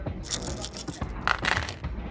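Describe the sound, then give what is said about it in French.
Seven dice rattle and clatter across a hard surface in a quick burst of overlapping clicks, moderately loud, with no voices, rolled in a game check needing at least three successes. “Tu lances euh, les 7 dés comme ça, sans dés de soif, et faut avoir au moins 3 succès.”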